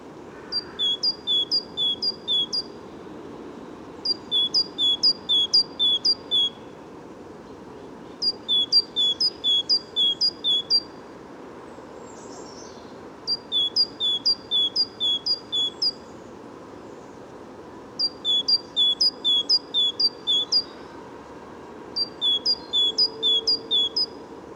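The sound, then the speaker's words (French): A bird perched high in a tree in a forest, in the first rays of sunlight, sings short, rapid, high-pitched phrases, about six bursts repeated at regular intervals, standing out clearly above a constant low background rumble of ambient noise. “malgré le sonouillard, ce brouillard sonore, le chant ressort quand même, euh, quand même très, euh, très bien.”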